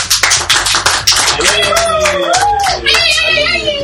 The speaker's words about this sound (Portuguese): salva de palmas para ela.